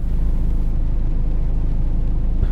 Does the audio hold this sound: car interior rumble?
yes